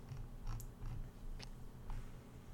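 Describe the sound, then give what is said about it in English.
A person imitates cricket chirping with a few short, clicky mouth chirps scattered irregularly over a steady low hum, fairly quiet, with no talking. “I'm trying to make cricket noises over here.”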